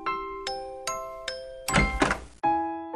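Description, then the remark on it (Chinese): A door-opening sound effect opening a Maoxiang Radio (猫巷电台) late-night programme: a short run of bright, ringing chime notes, then a brief rough rush of noise as the door swings, followed by one more sustained chime. “那么，请开门吧。”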